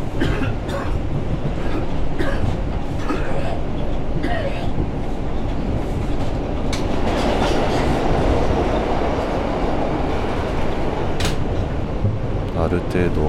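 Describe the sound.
A subway train rumbles along, a steady loud roar with sharp clickety-clack rattles and knocks over the tracks, and faint voices murmuring in the car.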